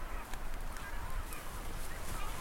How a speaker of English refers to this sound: Have you just picked up a shearwater?